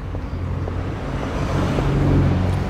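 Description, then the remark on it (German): A car passes by on a road, its low engine rumble and tire noise swelling steadily louder across the few seconds, with no one speaking. “Wieder ein Auto.”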